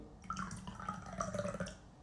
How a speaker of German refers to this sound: Mach nochmal einen Schluck rum, nein. Ja, Achtung, das plätschert schön. Jawohl, Achtung.